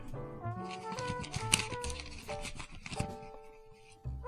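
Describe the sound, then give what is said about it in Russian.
Crisp paper rustling and tearing as a letter envelope sent from Kfar Hogla, Israel to Zaporizhzhia, Ukraine is opened, with several short crinkly bursts over a soft tonal background hum. “Открываем.”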